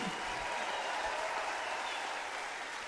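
A concert crowd applauds and cheers loudly and steadily for a performer who has already left the stage, a dense wash of clapping that holds at an even level for about three seconds without pause or fade.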